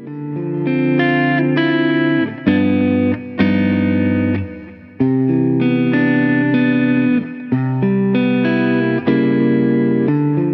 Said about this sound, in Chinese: 接下来咱们就来听一听，用同一支吉他弹同样的东西，整个音色链里面啊，从拨片到拾音器到效果器到音箱都是一模一样的，唯一不同的就是用三支不一样的话筒来拾音，它们录出来的声音能有多大的不同？